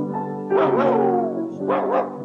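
dog barking

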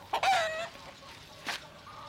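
chicken clucking

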